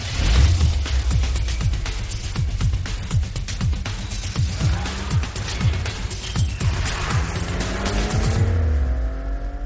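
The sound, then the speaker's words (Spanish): A noisy car engine roars steadily as the car drives past along a straight road, the engine noise rising as it approaches and falling as it moves away, its pitch repeatedly rising and falling as it revs, loud throughout, with no one speaking. “veamos una carretera recta y un coche ruidoso”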